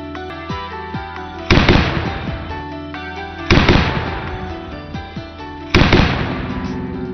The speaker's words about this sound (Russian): Темп стрельбы пулемета ДШК составляет 600 выстрелов в минуту.